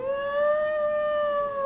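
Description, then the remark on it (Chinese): A single long, wailing wolf howl at night in the desert holds a steady mid pitch that rises slightly and then sags, sustained and fairly loud for nearly two seconds with no talking. “但夜里，大家听到令人毛骨悚然的声音。 啊，是野狼！”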